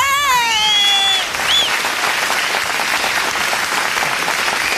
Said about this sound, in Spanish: Areli, te ganaste un aplauso